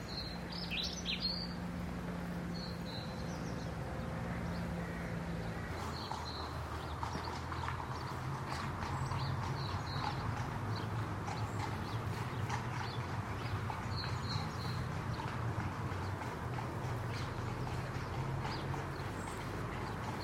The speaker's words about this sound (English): this one because of the horse's hooves. It's so sweet. I was going to say, I don't know whether it's just me and it's because I know it's cold outside, but to, to me, it sounds cold. Mm, it's got a sense of coldness.